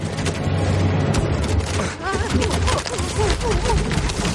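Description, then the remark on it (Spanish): Fish pour into wooden barrels with a dense run of wet thuds and slaps over a low rumble, while voices murmur faintly underneath. “Cae pescado en los barriles.”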